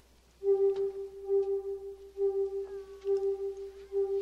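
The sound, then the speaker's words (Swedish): A steady electronic tone from a hypnosis machine pulses in a slow, even, slowing rhythm, about five long beeps with short gaps, clear, with no voices over it. “Och det hörs en ton. Ja. Och ju, ju mer man sjunker ner i sin dröm desto mer långsamt går den här tonen.”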